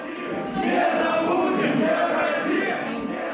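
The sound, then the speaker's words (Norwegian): A crowd of nationalists, 30 masked men storming the office of the Russian human rights organisation Memorial, shouting that Memorial brings shame on Russia, in a dense, continuous roar of overlapping voices, steady and loud for a few seconds with no clear individual words. “Nasjonalistene roper at Memorial bringer skam over Russland.”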